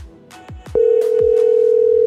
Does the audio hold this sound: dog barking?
no